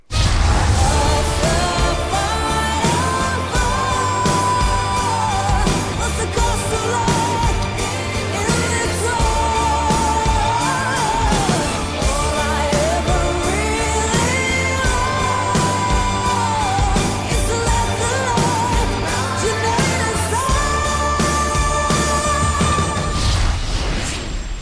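A loud, full pop song plays throughout, with a sustained, melodic female lead vocal over steady, dense backing instrumentation and a driving beat, continuing without a break.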